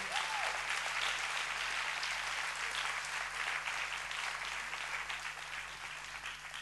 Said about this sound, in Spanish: ¿Cuántos dicen amén? Si querés aplaudilo.